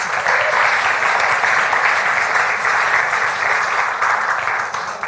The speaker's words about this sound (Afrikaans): So kom ons gee vir haar 'n applous vir haar moed.